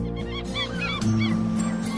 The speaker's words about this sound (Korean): 멀리서 갈매기 소리가 아련하게 들려옵니다.